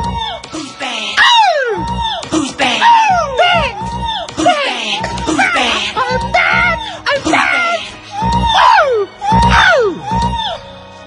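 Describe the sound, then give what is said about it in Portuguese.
A singer lets out a string of loud screams and whoops, each one a sharp rising-and-falling cry, repeated rapidly over about eleven seconds with little pause between them. “As pessoas adoravam aquele grito.”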